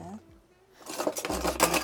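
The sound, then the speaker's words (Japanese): An American can opener working its way around a can of tomato paste, with a loud, steady run of rough, ratcheting metallic clicks after a brief low murmur of voice. “トマトピューレはあるじゃん、はあ、よいしょ、うんうんうん、ちょっと缶開けますね”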